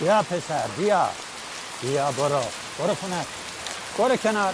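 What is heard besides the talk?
rain falling outside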